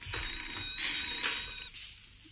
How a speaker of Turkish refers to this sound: telefona bakıver Matilde